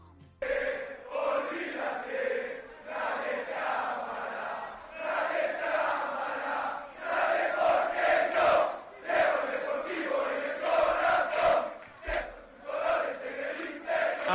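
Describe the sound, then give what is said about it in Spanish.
A large crowd of Deportivo de La Coruña football supporters sings a chant in unison to a familiar song melody, loud and sustained with a steady rhythmic swing and echoing stadium ambience throughout. “pero dedicada al, al Deportivo de La Coruña, que suena así.”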